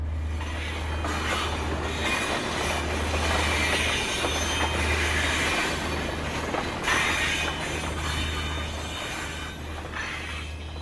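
A train rumbles steadily along the rails with a constant low hum and broad rushing noise, wheels grinding and squealing faintly, loud throughout with no voices.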